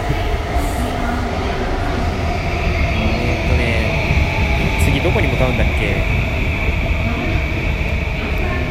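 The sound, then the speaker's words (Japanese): A Ueno-Tokyo Line commuter train rumbles loudly and steadily along the tracks above platforms 3 and 4 of a station, its droning motor whine and faint wheel squeals filling the scene while a person talks briefly over the noise. “でも上の東京ラインが走ってますね、うん、その上の東京ラインが走ってる中ちょっと収録してるわけではありますが”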